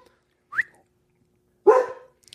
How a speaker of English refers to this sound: There's my dog. He's he's fired up about it.